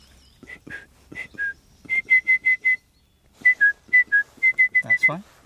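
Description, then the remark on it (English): A person whistles a short, lively tune into a microphone while a second microphone is being set up, a quick series of clear, bright notes in rhythmic phrases with brief pauses between them. “This one going perfectly well and I feel as if perhaps I should uh, whistle or or sing uh, as we're setting this second microphone up.”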